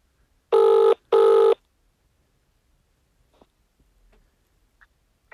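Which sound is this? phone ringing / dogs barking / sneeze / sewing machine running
phone ringing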